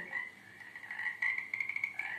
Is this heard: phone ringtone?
no